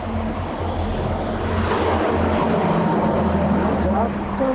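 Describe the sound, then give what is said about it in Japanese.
Heavy road traffic roars steadily and loudly for the whole stretch, a dense wash of engine noise with a deep, droning low hum and no pauses. “交通激しめっすね。”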